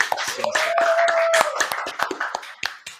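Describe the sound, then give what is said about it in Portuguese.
A round of applause for everyone taking part in an online bingo: many hands clapping in quick, irregular bursts that thin out toward the end, with a faint steady whistle-like tone briefly sustained under the early clapping. “Pessoal, pessoal, eu, eu, só a única coisa que eu, que eu quero ver é dar uma salva de palmas a todos que participarem da nossa”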